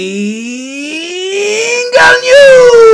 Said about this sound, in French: et moi j'annonce le Jingle